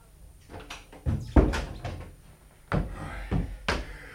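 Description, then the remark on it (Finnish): Several sharp wooden knocks and thumps ring out at uneven intervals as someone pounds on a door, ordered to keep knocking until it is opened, followed by the clatter and bump of the door being pulled open, with faint shuffling in between. “No ihan kuin 40 ajuria yhteensä koska isäntä sanoi, että minä en saa lakata koukuttavasta ennen kuin ovi avataan, jotten nukkuisi.”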